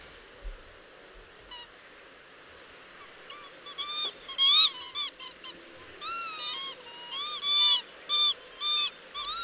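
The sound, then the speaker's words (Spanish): A flock of birds calls over and over, overlapping honking cries that build in loudness, with a quieter rustling background and no talking. “Pues sí, es un sonido además muy repetitivo, que bueno, estas aves eh, en sus zonas de descanso pues eh, continuamente están emitiendo, como podéis ver.”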